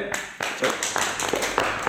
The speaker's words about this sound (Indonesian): tepuk tangan buat apa?